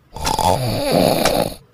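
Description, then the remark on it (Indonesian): A single long, rumbling snore from a sleeping grandmother before dawn, loud, with a raspy, fluttering texture that swells and fades over a couple of seconds. No one speaks. “Lalu Ahmad mendengar neneknya mendengkur.”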